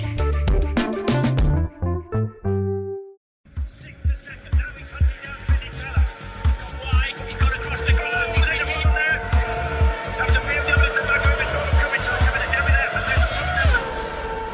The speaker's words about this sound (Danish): Kan I høre det? Kan I lugte det? Ja, det lyder som Formel 1, og det lugter som Formel 1. For det er Formel 1.